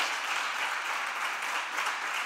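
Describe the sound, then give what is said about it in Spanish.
A crowd applauds steadily for Jesus, a dense, even wash of many hands clapping at once with no pauses and no voices standing out. “Que aplauda fuerte a Jesús, vamos.”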